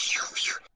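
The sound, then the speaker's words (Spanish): A voice imitates a sword swooshing through the air, two quick breathy hissing swishes in a row, fairly loud, ending abruptly. “Ajá, normal, pero parece que ya están atacando incluso que, que si suena así una espada así,”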